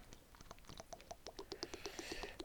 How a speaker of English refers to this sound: oh, I hear that pour. That sounds luscious.